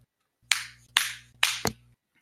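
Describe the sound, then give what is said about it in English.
A hand pats a sitting dog's solid body four times, firm thumps at a steady pace, the last two coming quicker, with a low hum underneath and no talking. “I'm sorry, I just get obsessed with how solid my dog is. When he sits here like this. Solid dog.”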